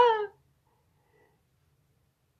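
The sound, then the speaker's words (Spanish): A brief, voiced yawn with a falling, whiny pitch that fades within half a second, followed by near silence and a faint soft noise. “Para, para los que este, no sepan qué estoy haciendo, estoy bostezando.”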